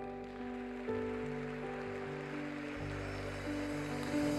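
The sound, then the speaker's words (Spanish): An audience claps loudly for the king in a steady, dense wash of applause that holds for several seconds, while sustained keyboard chords shift underneath. “¿Puedes dar un fuerte aplauso al rey?”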